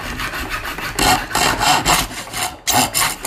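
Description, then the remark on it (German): A hand saw cutting through metal with steady back-and-forth strokes, about two per second, rasping loudly, with no talking. “säge hier gerade dieses Metall durch.”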